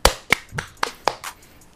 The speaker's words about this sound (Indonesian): kita kasih tepuk tangan aja